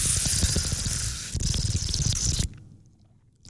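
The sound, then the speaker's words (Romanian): A long, wet slurp of the first mouthful of hot coffee, hissy and sustained for a couple of seconds before cutting off into near silence. No one speaks. “mai degrabă să le spunem oamenilor că a venit momentul să luăm prima gură de cafeloi.”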